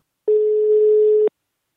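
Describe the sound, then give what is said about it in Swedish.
A single steady telephone ringback tone of an outgoing call to someone at Immacare, a mobility aids company, sounds for about one second, a clear, fairly loud electronic hum heard on its own with silence before and after. “Nu ringer vi honom tycker jag.”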